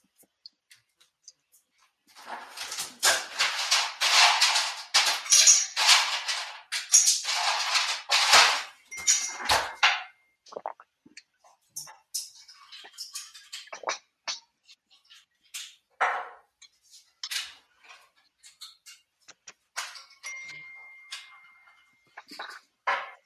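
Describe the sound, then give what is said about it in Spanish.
A glass being refilled: several seconds of steady, bright rushing water, then a scatter of light clinks and small handling clicks, with no talking. “Espérate, dame, dos segundos, refileo mi agua.”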